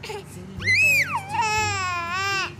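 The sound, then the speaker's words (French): A young, visibly panicked child in a car cries in two loud, strained wails: the first rises sharply in pitch and then slides down, the second holds a high, steady sob for over a second before stopping. “qui, visiblement paniquée, s'est mise à pleurer.”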